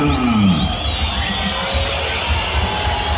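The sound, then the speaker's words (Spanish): A large stadium crowd at the Sánchez Rumoroso stadium boos and jeers during the player introductions in a loud, continuous roar, the dense wash of many voices filling the whole space without pause. “Sí, el pifiómetro en este caso.”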